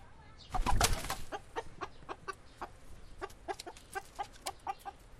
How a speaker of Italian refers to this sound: E poi c'è lei, una gallina di Brooklyn.